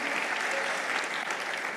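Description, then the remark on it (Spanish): Steady audience applause in a church, a dense wash of many hands clapping at an even level throughout the short clip, with no voices standing out, applauding the people who invited others to church. “¿Cuánto dan un aplauso a esa persona?”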